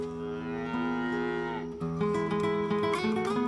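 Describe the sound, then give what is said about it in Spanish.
Cattle, including calves, cows and heifers, moo loudly and continuously on a small ranch in San Juan de los Lagos, Jalisco, Mexico, several long overlapping lowing calls, one voice giving way to another midway, with no talking. “ahí tenemos eh, lo que es becerras, vacas, vaquillas”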